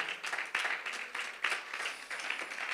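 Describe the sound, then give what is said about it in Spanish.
An audience applauds steadily, a dense wash of many hands clapping with irregular surges in loudness and no pauses, fairly loud throughout. “Alguien que reciba la palabra, que aplauda la presencia del que vive.”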